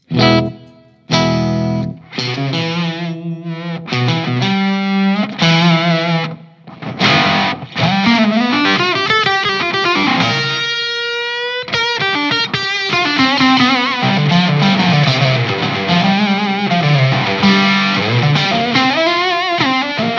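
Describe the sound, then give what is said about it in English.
Heavily overdriven electric guitar played through a drive pedal with its octave-down setting, giving a thick octave-down layer, played as loud sustained notes and sliding, wavering bends that rise and fall, with short pauses early on and no talking. “This is a this is a very cool pedal.”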